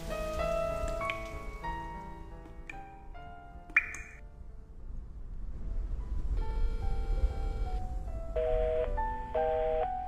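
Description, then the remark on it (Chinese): Raindrops patter steadily on tree leaves, a soft continuous hiss running underneath bright, ringing chime-like musical notes that come in clusters throughout. No one speaks. “你有多久没有打开耳朵，细细聆听雨滴打在树叶上的声音？”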